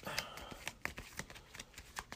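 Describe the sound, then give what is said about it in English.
A deck of game cards being shuffled, a quick run of soft, crisp riffling clicks and flutters over about two seconds, fairly quiet, with no voices. “And uh, I'll shuffle random here real quick and see what I got.”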